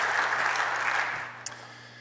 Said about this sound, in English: Give him a big round of applause because you're glad he's here.